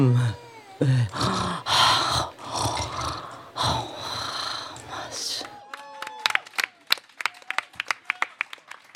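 Loud, rising vocal cheers and whoops from a crowd, then a burst of scattered, sharp hand claps from several people, uneven in rhythm and fading out.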